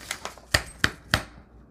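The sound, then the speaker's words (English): Paper printouts from a digital kit are handled, giving crisp rustles and a few sharp flicks. Three louder snaps come at a steady pace after softer shuffling, with no talking. “Okay, so I'm just gonna grab a, uh, these are some uh, printouts from my DigiKit, but you can use anything, it doesn't matter.”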